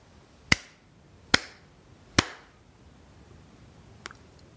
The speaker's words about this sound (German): Und so bat er seine Gäste, lasst uns alle zusammen dreimal in die Hände klatschen.